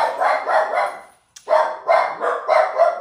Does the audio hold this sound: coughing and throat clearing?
no